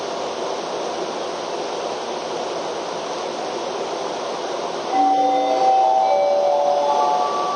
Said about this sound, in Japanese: 1番線ご注意ください電車が通過します1番線ご注意ください電車が通過しますギリギリブロックの内側までお下がりください